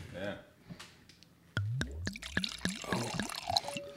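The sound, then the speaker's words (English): Wine glugs out of a bottle into a glass in a quick, rhythmic series of gurgles, loud, after a brief moment of someone talking. “had a good solid pour, a good glug”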